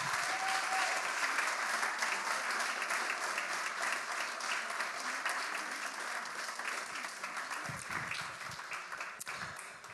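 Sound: audience applauding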